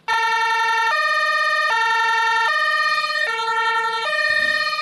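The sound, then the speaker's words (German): A loud two-tone siren of the new emergency vehicle 04-47-04 of the Dithmarschen civil protection service, Germany, alternates steadily between a higher and a lower pitch, switching roughly every second for several cycles with no talking. “Die Rede ist vom neuen Einsatzfahrzeug des Dithmarscher Katastrophenschutzes, das erst vor wenigen Tagen vom Hersteller aus dem 1000 Kilometer entfernten Herbolzheim in Baden-Württemberg abgeholt wurde.”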